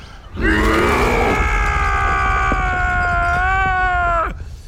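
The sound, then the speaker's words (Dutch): A human voice imitates a bear's roar for the character Bear (Beer) in a story being read aloud: one loud, sustained, growling bellow lasting about four seconds, holding a fairly steady low-to-mid pitch before cutting off abruptly. “En dan, hij schrikt er zelf van, ontsnapt er uit zijn mond een berenbrul.”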